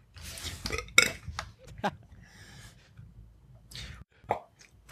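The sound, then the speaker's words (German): A loud, drawn-out burp with a rough, gurgling texture, followed by a few shorter belching bursts and some faint rustling. No one speaks. “Rülpsen ist gut, wegen Mate und so.”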